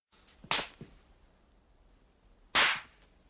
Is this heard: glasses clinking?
no